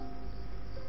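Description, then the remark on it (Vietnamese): Cicadas drone in a steady, unbroken buzz on a summer evening as night falls, a dense insect chorus with no voices over it. “tiếng ve kêu báo hiệu mùa hè cũng hết đợt này đến đợt khác”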